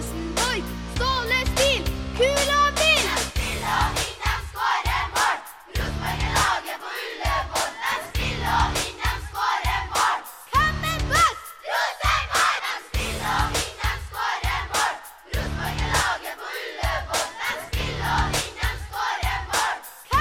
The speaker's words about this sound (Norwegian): hvis ikke Rosenborg-supporter nå, så er det ikke noen grunn til å være det heller, ut ifra den låta her.